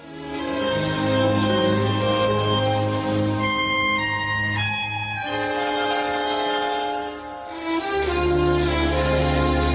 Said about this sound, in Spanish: Qué bonita también esta música, Luis esta banda sonora